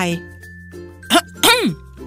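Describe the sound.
A loud throat clearing in two quick bursts, a short rasp followed by a longer voiced 'ahem' that rises and falls in pitch. It sounds like a voice performing it, as the story character Aunt Red Pig clears her throat by a haystack, startling a pink pig.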